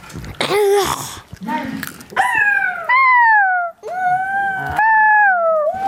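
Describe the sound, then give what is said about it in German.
A child imitates a fox, giving a few sharp yips followed by three long, wavering, falling wails, each loud with short pauses between them. “Der Geräusch, das der Fuchs macht. Kannst du das mal vormachen?”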